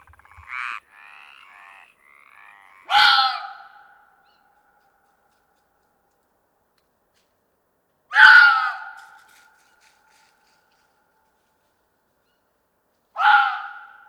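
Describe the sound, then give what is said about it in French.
A fox cries out three times at night, harsh rasping screams spaced about five seconds apart, fairly close and loud against deep silence, with a few faint chirping calls before the first. “C'est un renard.”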